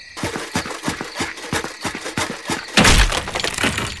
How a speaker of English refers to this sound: You've smashed my invincible spear into splinters.